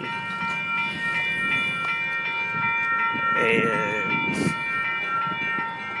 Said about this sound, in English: not gonna take the train, although I hear the train. Hear the train? Close to the railroad tracks. That was good timing.